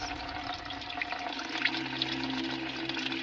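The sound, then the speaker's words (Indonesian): Water gurgles and splashes in a continuous, fairly loud stream, swelling slightly and sounding heavier partway through. No one speaks. “Kemudian ada suara gemercik air yang semakin deras.”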